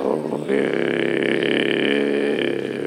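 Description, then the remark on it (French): A man's voice imitates a bear's growl as a primal cry: one loud, sustained, rough roar lasting about three seconds, swelling after a brief lower start and holding steady. “Moi, des fois, je fais l'ours. Je fais un gros son d'ours.”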